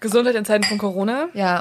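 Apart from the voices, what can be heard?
glasses clinking together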